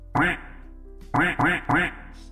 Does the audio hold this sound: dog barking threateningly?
no